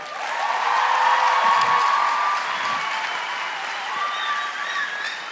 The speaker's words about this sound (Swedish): Ska vi ge lovsångsteamet en varm applåd?